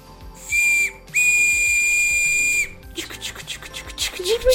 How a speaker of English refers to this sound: I wear a whistle around my neck now.